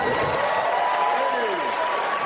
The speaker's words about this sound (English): Wow. It's always good to hear applause for O.J.